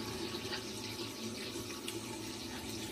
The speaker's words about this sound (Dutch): Wat ik altijd doe voordat ik hem van mijn gezicht afhaal, het masker, is ik maak mijn hand nat met wat koud water.